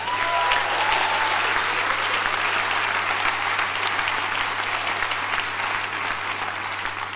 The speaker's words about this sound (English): Put your hands up if you've been here since 5.30 this morning. Put your hands up. Give them a special round of applause.